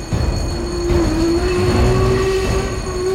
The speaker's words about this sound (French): À Périgueux, les employés de la Banque de France chargent le fameux train 1709. Les 150 sacs sont à bord. Le contrôleur siffle. Le train démarre dans un immense nuage de vapeur.